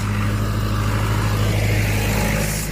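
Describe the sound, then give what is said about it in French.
A tractor engine drones loudly, a steady low rumble with a deep throbbing hum that holds for the whole moment, easing slightly toward the end as it passes. “Attention, tracteur”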